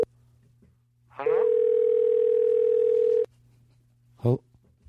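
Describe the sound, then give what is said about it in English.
A loud, steady telephone dial tone drones for about two seconds over a faint low hum as a phone call is placed, then cuts off abruptly; a brief voice follows shortly after. “Okay, we're getting him on the phone right now.”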